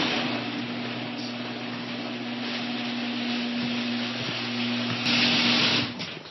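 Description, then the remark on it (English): A garage door opener runs steadily as the garage door opens, a low motor hum beneath a continuous grinding, rattling rumble that swells briefly toward the end before cutting off. No one speaks. “Um, I'm just going to fire up the garage door here and grab a shovel.”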